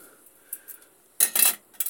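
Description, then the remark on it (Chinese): A small home cooking pot, used to steam fish, is handled: a few light metallic taps, then a louder clattering scrape of metal for about a third of a second, and one more brief clink at the end. No one speaks. “对，用我家的这个小锅来做，然后多放点水吧， 因为是做蒸鱼”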